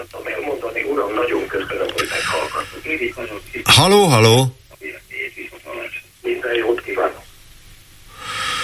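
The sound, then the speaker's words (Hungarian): A caller's radio plays loudly down a phone line during a radio phone-in while a voice calls out over it, with a brief, piercing, warbling howl bursting through midway before the muffled broadcast continues. “Akinél szól a rádió ilyen hangosan.”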